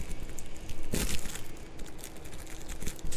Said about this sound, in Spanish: destapo el, pastelito, el chocorramo. No es publicidad, es vida real.